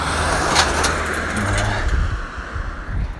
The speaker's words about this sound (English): noisy vehicle just going past then